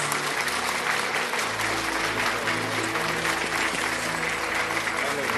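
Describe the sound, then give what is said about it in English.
Sustained audience applause welcoming Apostle Dennis Nemi, known as Diamond Man, a dense, steady wash of clapping that fills the whole stretch at an even, fairly loud level, with a low hum running underneath. “So wherever you are right now, I want you to give him a clap innovation.”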